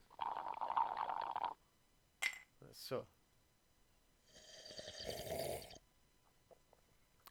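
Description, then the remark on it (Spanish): A loud slurping sip with a gurgling, hissy draw of air and liquid, followed by a few short clicks and a second, breathier slurping burst. “Aquí le, mandamos, aquí le mandamos. Una, sorbida por el club de sorbedores”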